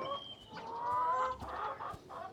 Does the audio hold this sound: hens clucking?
yes